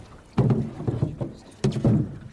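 Oars weighing about 10 pounds and almost as long as the boat dip and pull through water in two strong, evenly spaced strokes as both sides put blades down, each with a splashy surge and some lighter knocks and swishes in between.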